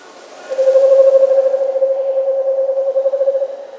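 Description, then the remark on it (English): An Eastern Screech Owl gives a single steady, monotone trill lasting about three seconds, a soft rapid quavering tone that holds one pitch and wavers slightly toward the end, with no voices present. “And the last one is Eastern Screech Owl.”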